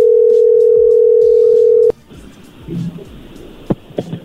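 A loud, steady telephone ringing tone of a phone call being placed holds for about two seconds, then cuts off abruptly, leaving faint line hiss and a few scattered clicks.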